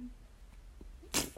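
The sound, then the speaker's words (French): Quiet, then near the end a sudden short fart, a sharp breathy burst with a buzzy tone, followed a moment later by a second brief puff. No one speaks. “t'as pété Ok.”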